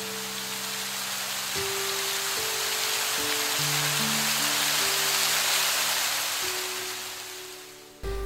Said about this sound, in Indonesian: Namun, seketika hujan deras pun turun.